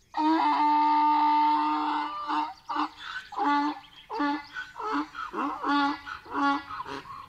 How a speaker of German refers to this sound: Wenn der Esel bedroht wird und in Lebensgefahr ist, dann kann man das hören. Der Esel schreit dann laut und verzweifelt. Der Esel hat eine ganz schön laute Stimme. Ia, ia, ia, ia.